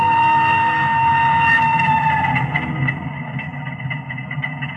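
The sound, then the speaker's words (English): A train pulls away, a steady mechanical hum and low rumble with light clattering; the engine tone holds throughout and softens slightly partway through. No one speaks. “Just as the train started to move, a burly fellow with a pipe in his mouth walked into the compartment and settled himself in seat number three.”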